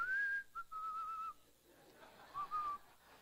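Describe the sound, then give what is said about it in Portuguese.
A person whistles a casual, idle little tune, as if pretending not to hear: a longer drawn-out phrase, a short pause, then a brief second phrase. No one speaks. “Finge que não está ouvindo, porque é muito ruim um pedido desse, gente.”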